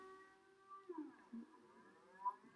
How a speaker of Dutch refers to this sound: het is maandag om 12 uur, eerste maandag van de maand, dus het, er gaat de sirene af